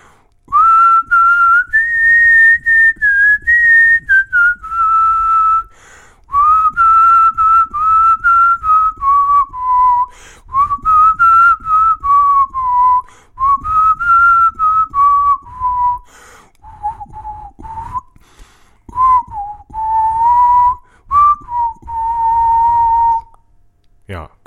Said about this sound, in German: Ich möchte noch einmal die Melodie pfeifen.